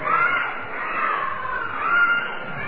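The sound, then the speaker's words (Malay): A steady wash of children's voices shouting and chattering at once at night as a religious talk ends, a noisy, continuous din that swells and dips slightly without any single clear voice standing out. “dan sudah reda meredai dan budak-budak pun semakin bising maka cukuplah sekadar ini sahaja untuk malam ini”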